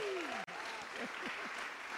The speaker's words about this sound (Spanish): vamos a pedir un aplauso para Jorge y Dana. Sí.